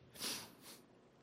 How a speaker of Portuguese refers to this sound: Desculpe, vou tirar um pouco funga-funga aqui.